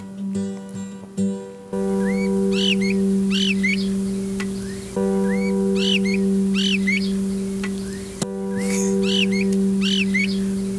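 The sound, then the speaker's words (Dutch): Small birds chirp in Stuart Eltham's garden, recorded in 1965 for the Birds of a Feather tape, in short, repeated bursts of bright calls. The calls sit behind a steady, loud low humming drone that runs through nearly the whole recording. “Dan hoor je nog wat vogeltjes op de achtergrond.”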